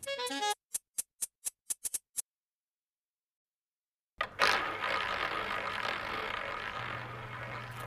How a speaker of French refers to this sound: Vous êtes dans un casino et vous entendez la roulette tourner.